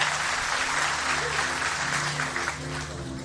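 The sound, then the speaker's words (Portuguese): An audience applauds steadily for God during a church service, a dense, sustained wash of clapping from many hands, with a low hum and faint voices underneath, easing slightly toward the end. “Vamos aplaudir a Ele, vamos ficar em pé, vamos embora.”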